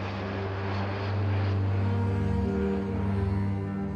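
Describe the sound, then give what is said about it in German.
A private jet flying to Athens, its engines producing a steady, low droning roar with a faint whine above. The sound is continuous and moderately loud, with no voices. “Die beiden Freundinnen fliegen mit dem Alpha Jet Jet nach Athen, um von da aus ihre Schiffsreise zu starten.”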